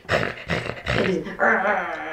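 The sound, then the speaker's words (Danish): A person's voice imitates two dogs, a large dog off its leash and a small dog, growling at each other: a few short, rough snarling bursts, then one longer, sustained growl, loud. “og så går der et splitsekund, før de begynder at de skændes ikke engang. Den, der kommer nogle lyde, der lyder lidt sådan”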